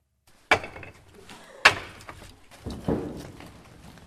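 Chunks of firewood knock and clatter as they are stacked, with three sharp woody impacts spaced about a second apart and some rustling handling in between, close and fairly loud, no talking.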